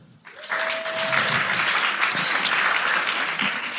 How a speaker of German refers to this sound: Wer von euch äh, ist denn gay? Mal einmal klatschen.